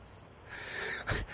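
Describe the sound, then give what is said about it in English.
A short, breathy pant builds into a sharp, raspy gasp near the end, fairly loud, with no talking around it: a woman panting after taking a sip of straight vodka. “panting every time she's taking a sip. because it's just straight vodka.”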